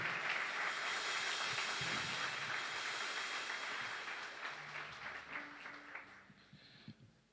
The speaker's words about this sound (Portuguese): Dê sua melhor salva de palmas ao nosso Deus Todo-Poderoso.